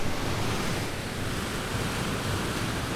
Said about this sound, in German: schaut auf das sprudelnde Wasser im Mühlkanal. Es kommt aus dem Bach namens Rot. Ein paar Meter von der Mühle entfernt gabelt sich die Rot. Rechts fließt der ursprüngliche Bach weiter, links fließt Wasser in den Kanal.